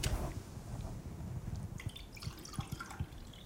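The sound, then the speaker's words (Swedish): Water pours into a drinking glass, a steady trickle with bright gurgling and splashy drips rising in pitch as the glass fills, a little water spilling, no talking over it. “Jag tänker så här att vi börjar med ett glas vatten.”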